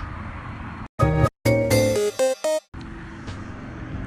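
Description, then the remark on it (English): Steady street traffic rumbles in the background, heard from a bench, interrupted midway by a run of loud, sharp tonal blasts, like honking horns, before the low traffic noise resumes. “So you're hearing some traffic from the street, some crickets, perhaps the occasional bird.”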